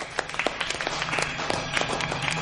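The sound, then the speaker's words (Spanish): In a Harry Potter film scene, the teacher Horas applauds and the students half-heartedly imitate him: a scattered round of clapping from a small group, uneven and unenthusiastic, with irregular sharp claps continuing steadily for a couple of seconds at moderate loudness. “Horas aplaude y los alumnos lo imitan desganados.”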